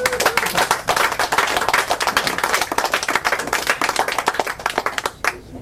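An audience at an evening book reading claps steadily for several seconds for the authors after three readings, dense overlapping handclaps, then the applause thins and fades out near the end.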